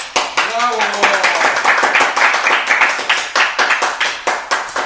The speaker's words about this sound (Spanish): ¡Aplausos!